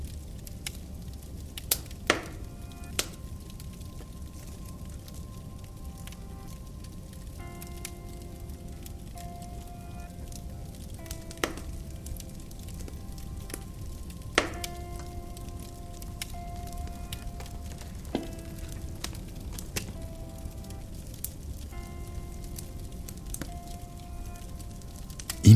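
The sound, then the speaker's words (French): Wood fire crackling with irregular sharp pops and snaps over a steady low rumble, while faint sustained tones hum softly underneath. “Le rythme de votre respiration s'harmonise avec le crépitement du bois qui se consume.”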